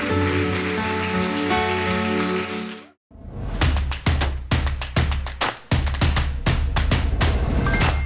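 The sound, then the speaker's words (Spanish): A held musical chord plays for about three seconds and cuts off, then an audience breaks into loud, sustained applause for the Lord at night, with dense clapping that swells in bursts. “Dar un fuerte aplauso al Señor en esta noche.”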